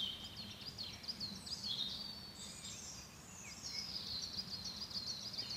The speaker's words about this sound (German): Kommen wir mal zu den Vögeln. Also ich weiß nicht, ob man die hört. Nur mal einen Moment ruhig.